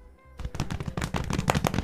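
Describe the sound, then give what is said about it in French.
A fast drum roll of rapid, evenly spaced hits starts after a brief quiet moment and keeps rattling loudly to the end, with a low rumble beneath the sharp strikes. “Roulement de tambour.”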